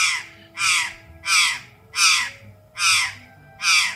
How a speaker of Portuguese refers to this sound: A gralha deu um passo à frente e gritou: Agora eu! E abrindo a bicana, matraqueou uma grita de romper os ouvidos aos próprios surdos.